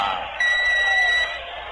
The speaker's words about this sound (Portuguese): Apita o árbitro, torcida brasileira.